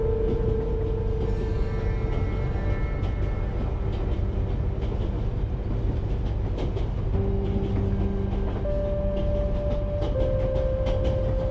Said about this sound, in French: vous êtes installé confortablement pour un long voyage dans le magnifique train à vapeur Transvoyage Express.